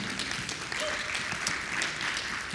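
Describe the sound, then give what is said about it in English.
A crowd applauds steadily, dense overlapping claps forming a continuous wash of sound at moderate volume, with no break through the short stretch, clapping for a couple celebrating their 33rd wedding anniversary. “People are clapping for you if you can't hear mom and dad.”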